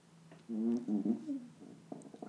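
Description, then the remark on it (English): A chair squeaks with a low, drawn-out, fart-like creak, loud, followed by a few short creaks and clicks as it shifts under someone sitting in it. No one speaks. “Wow, the chair really sounds like farts.”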